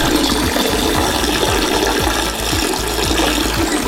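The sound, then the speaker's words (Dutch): A toilet flushing loudly, a steady rush of water filling the whole clip with a rhythmic low churning and rattle underneath, and no voices. “Ja, dit is het geluid van... Een wc”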